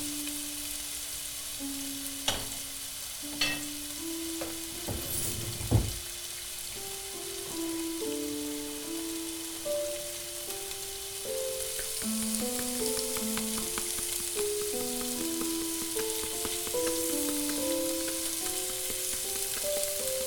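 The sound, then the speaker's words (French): Small diced pieces sauté gently in a non-stick pan with a steady, crackling sizzle, broken by a few sharp clinks of stirring early on. A soft melody plays underneath and nobody speaks. “Et puis, euh, simplement, je, rajoute mes petits dés que j'ai découpés et je les fais revenir doucement.”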